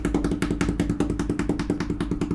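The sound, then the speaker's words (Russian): A fast, steady drumroll of hands tapping on a tabletop, dull low thumps mixed with sharper knocks repeating rapidly and evenly for a couple of seconds, with no talking. “бар барабанная дробь перед выпуском, я так понимаю.”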